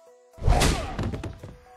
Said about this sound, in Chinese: 林峰冷笑一声，对着冲上来的一个人直接是一拳头砸了上去。